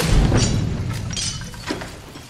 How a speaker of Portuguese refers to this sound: O carro explodiu, mas o John não morreu.